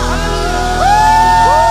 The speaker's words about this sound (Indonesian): Tepuk tangan yang meriah buat Tuhan Yesus Kristus. Haleluya.